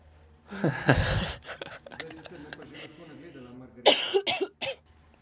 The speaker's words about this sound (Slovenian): No, nismo povedali, da je neka prehlajena tu z nami, zato slišimo občasno kašljanje, pa brisanje nosu.